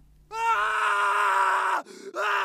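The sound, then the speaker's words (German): A man, a second test subject in a small chamber, lets out a loud, anguished scream, holding it for over a second before a brief catch of breath and a second strained cry. “Bis irgendwann dann ein zweiter Proband ebenfalls begann zu schreien.”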